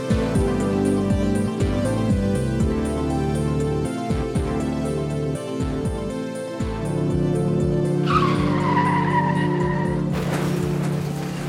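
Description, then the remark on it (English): A loud train rolls by with a heavy rumble and rhythmic mechanical clatter, then a shrill squealing whistle rises near the end; no one speaks. “if you just heard that train a rolling, then you know that that means it's Strain Wreck”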